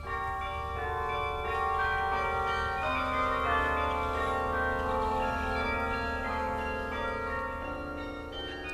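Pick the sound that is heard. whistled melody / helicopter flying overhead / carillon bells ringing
carillon bells ringing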